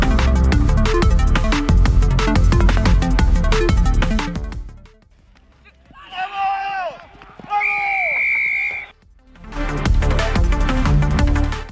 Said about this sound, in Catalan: Aquest és el so del xiulet que anuncia una marca, un assaig o fins i tot un xut a pals.